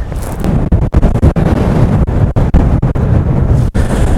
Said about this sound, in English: This is where it's going to get real windy.